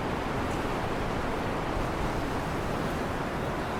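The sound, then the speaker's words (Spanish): Strong wind roars steadily through a snowy pine forest in the Sierra de Guadarrama as the snowfall eases and the trunks are shaken, a dense, unbroken rushing like surf on a stormy sea, enveloping with no pauses and no voices. “Sopla ahora el viento. La nevada baja de intensidad, pero el bosque, los troncos sacudidos, suena como un temporal en el mar.”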